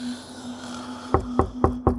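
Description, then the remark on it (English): Four firm knocks on a door in a steady rhythm, fairly loud, over a low constant hum with no one speaking. “Mr. Billings, open up.”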